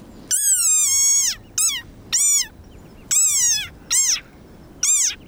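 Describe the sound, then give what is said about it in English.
An angry desert rain frog squeaks six times in quick, uneven succession, shrill, each squeal wavering and dropping in pitch at the end, with no other sounds around. “But actually, this is the sonorous war cry of a very angry frog.”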